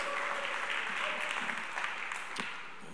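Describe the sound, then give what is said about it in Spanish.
A church audience claps together in a steady, dense wash of applause offered to God that holds for a few seconds, then begins to thin and fade toward the end. “Fue increíble, otro aplauso a Dios.”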